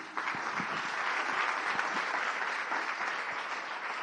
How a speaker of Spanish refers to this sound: Denle un aplauso a Dios vivo.